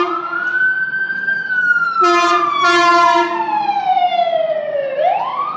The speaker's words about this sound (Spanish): esa es una ambulancia.